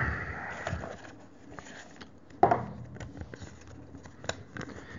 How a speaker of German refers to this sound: Ich schüttel mal am Kästchen.